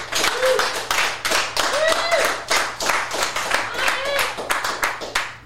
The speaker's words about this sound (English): So, y'all put your hands together and let's give a big round of applause